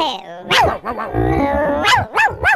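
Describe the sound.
A person mimics a dog with several loud barking yelps and a drawn-out growling stretch in the middle, ending with two quick bark-like bursts.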